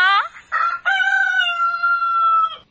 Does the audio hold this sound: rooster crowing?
yes